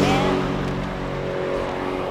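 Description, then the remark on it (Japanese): Steady, continuous road traffic noise from cars on the busy Umi-no-Nakamichi road in Japan, a multi-lane road with a central divider and few traffic lights or intersections; a loud even rumble with a faint engine hum running throughout the short stretch, no distinct voices. “うん、あそうかこんなに道路が良くなってんだって2車線2車線2車線中央分離帯2車線でもうほとんどなんかあのこれあの信号もあんまりありませんから、はい交差点も少ないんで皆さんなんか楽しそうに車乗ってらっしゃいます”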